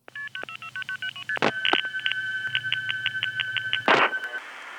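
A long, quick series of telephone keypad dialing tones, each a short, clear beep, with brief bursts of noise breaking in partway through and near the end. No one speaks.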